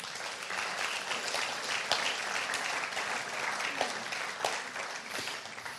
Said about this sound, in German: Und ich glaube, wir dürften den beiden einfach mal einen warmen Applaus geben, oder?